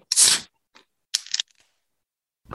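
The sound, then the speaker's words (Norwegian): A can of alcoholic drink is cracked open with a sharp pop and bright hiss, then brief fizzing and a couple of small clicks, with no talking. “Det er en voksenbrus, ja, faktisk.”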